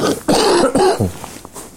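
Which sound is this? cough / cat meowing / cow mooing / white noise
cough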